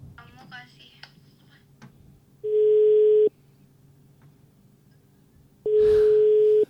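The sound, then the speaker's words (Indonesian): A telephone ringback tone while calling the office's program director sounds twice, each a steady mid-pitched electronic hum lasting under a second, separated by a pause, with faint murmuring and clicks in the background. “Eh, kita nelfon PD kita.”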